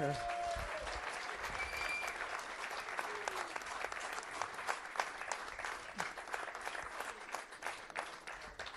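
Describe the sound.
A sustained burst of applause from a small group of Viking supporters for an Austrian friend, dense clapping filling the whole stretch at a steady, moderately loud level, with faint voices mixed in beneath it.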